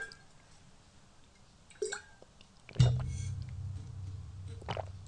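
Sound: drinking water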